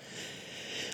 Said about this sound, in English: those heavy breathing sounds you can hear are my dogs who are snoring quietly beside me.